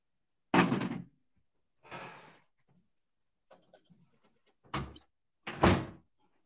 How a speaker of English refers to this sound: Oh, I thought that was a door to another realm. That was just the the bedroom door.